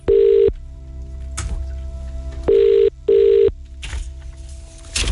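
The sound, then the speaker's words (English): A telephone rings in loud, repeated electronic bursts, three strong rings with short pauses between them over a low background hum, no voices present. “answer the phone first.”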